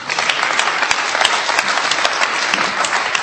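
A short burst of applause from a group for good translation work, dense steady clapping with many overlapping hand claps, fairly loud and continuous for a few seconds with no voices.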